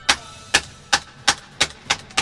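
A hammer pounds steadily, seven sharp, evenly spaced blows about a third of a second apart, each a crisp knock with a short ringing decay, nailing shut from outside the doors of the retainers' longhouse at a mansion. No voices.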